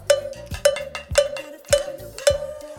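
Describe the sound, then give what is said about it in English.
The tip of a stick taps gently on the top of a cowbell five times in a steady, even rhythm, each stroke giving a bright metallic clank that rings briefly before the next. No voices. “Just tap gently on the top of the cowbell.”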